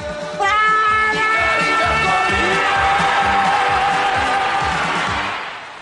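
A loud crowd shouts "Province" and cheers continuously, a dense roar of many voices with a rhythmic, chant-like pulse underneath, sustained for several seconds before easing slightly at the end.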